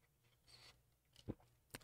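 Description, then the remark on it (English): A quiet sip from a drink: a soft slurp followed by a couple of short wet bursts near the end, with no one talking. “I'm going to take a sip of my drink.”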